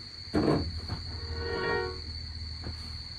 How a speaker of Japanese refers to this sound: それは何かっていうと、このピアノのね、元の弾いてる音をコピーして、別トラックにまずしました。で、そのトラックにリバーブのリバース音のエフェクト。これです。